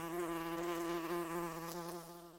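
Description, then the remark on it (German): A steady insect buzz with a strong harmonic drone, like several wasps humming at the entrance hole of a nest box, continuous throughout and slightly fading at the end, with no voices. “Vor allem für Hornissen aber auch mal für Deutsche oder gemeine Wespen finden sich auch Privatabnehmer, die sich den grünen Kasten mit dem stets surrenden Ausflugsloch im Garten an einen Baum hängen lassen”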